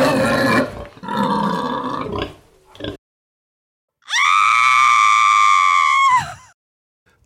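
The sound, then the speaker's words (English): Two loud, harsh screams with no talking: a rough, raspy, broken cry lasting a few seconds, then after a short silence a long, shrill, buzzing scream held steady before cutting off. “Studies have shown that nonlinear sounds are the scariest to humans, like the sounds of animal or human screaming.”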